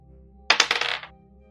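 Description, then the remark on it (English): Dice rattle and clatter across a hard table in a quick burst of several bright clicks lasting about half a second, then settle into quiet, as a player makes a wisdom roll in a game. “All of these dice have burned me today, but I'm going to try this one.”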